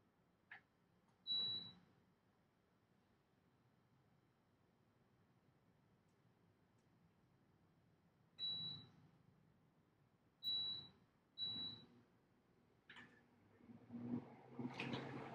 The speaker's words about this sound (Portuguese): Deixa eu ligar o ar-condicionado aqui da minha casa, porque senão eu vou morrer de calor.